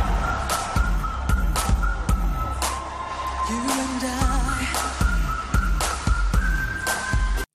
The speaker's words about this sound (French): À ça t'ajoute une chanson mi-français, mi-anglais pour la bonne compréhension de toutes et tous. un petit sifflotis pour un gimmick qui reste bien en tête.